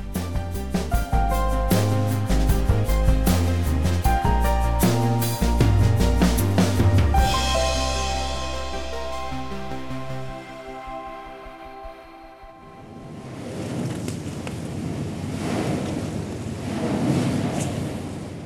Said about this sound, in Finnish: Tältä kuulostaa, kun seisoo laivan kannella ja Etelämantereen merijää murtuu keulan alla.